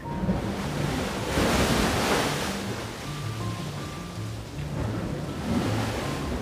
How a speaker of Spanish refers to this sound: Cuenta la historia que en los morros de Ceiba Playa, Campeche, existen unas grutas, o mejor dicho, cavernas, donde rebotan las olas del mar.